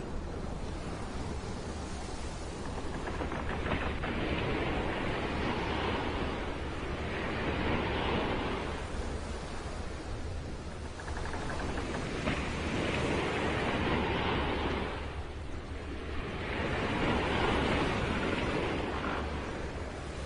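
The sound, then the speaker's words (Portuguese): A stormy sea roars continuously around a ship, with heavy waves surging and receding every few seconds over a steady hiss of driving rain and strong winds. The sound is loud, with no voices. “sempre acompanhada de grandes ventanias dentro dos porões, a quantidade de água, tanto da chuva quanto do mar, está rapidamente se elevando e começa a passar pelas brechas do barco em direção aos presos acorrentados, deixando-os inquietos.”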